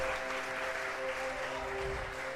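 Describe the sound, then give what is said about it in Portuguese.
An audience applauds steadily, a dense, even wash of clapping that holds at a fairly constant level throughout, with a faint low hum underneath and no voices. “Me recompensem com as suas palmas.”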